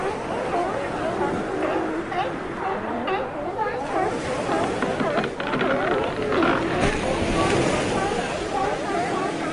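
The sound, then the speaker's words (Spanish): A crowded chorus of sea lions barking and bellowing over one another at a white-sand beach, a continuous overlapping din with no pauses, set against a faint wash of surf and waves. “Al acercarnos a la playa de arena blanca, los leones marinos curiosos nos dan la bienvenida con sus juguetonas travesuras.”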